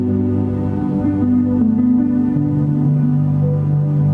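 Ambient music with sustained, droning tones that slowly shift pitch, steady and fairly loud, with no voices and no percussion.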